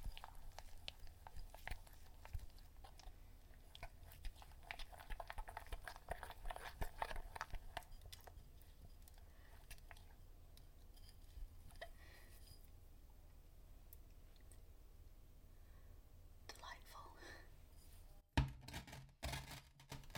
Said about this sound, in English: love the sound of the glitter grinding under the bowl.